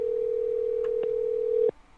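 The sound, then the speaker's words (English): A single steady telephone ringing tone on a speakerphone call hums loudly and evenly over the line for under two seconds, then cuts off abruptly, with a couple of faint clicks and no voices. “It's ringing though.”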